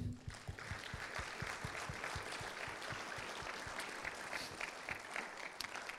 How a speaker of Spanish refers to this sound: Dale un aplauso, ¿sí?